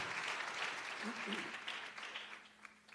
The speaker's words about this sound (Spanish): Salúdeme con fuerte gloria a Dios, hermano. Denle una ofrenda de palmas al Señor, hermanos. Gloria a Dios.